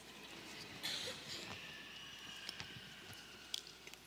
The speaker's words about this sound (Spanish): y déjenme tomarme un traguito del agua.